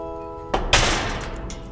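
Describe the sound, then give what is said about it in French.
A sharp metallic clank, then a heavy ringing clang as a large metal cemetery gate is unlocked with a key from a key ring hung on a belt and swings open, with a long resonant decay and faint rattling, at the Batignolles cemetery in Paris's 17th arrondissement. “Elle farfouille dans son trousseau de clés, accroché à sa ceinture, pour trouver celle qui ouvre la grande grille.”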